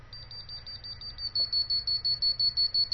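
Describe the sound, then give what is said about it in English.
A slightly broken liquid level indicator, the beeping version, damaged after being dropped into a cup of tea, beeps in a high, piercing tone when put in liquid. It starts as faint quick intermittent pulses, then grows louder into a steady stream of rapid continuous beeps over a low background hum. “It's beeping intermittently and beeping continuously.”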